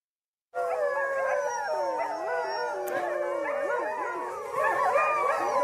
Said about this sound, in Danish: den her lyd bliver der mindre og mindre af øh, over de seneste årtier. Det er grønlandske slædehunde, og antallet af dem er faldet i takt med øh, blandt andet, at øh, grønlænderne er begyndt at bruge sneskuter i højere grad end hundeslæder